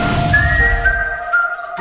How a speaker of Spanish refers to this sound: En el puesto número 2, con sus silbiditos, llega